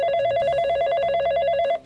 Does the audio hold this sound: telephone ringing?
yes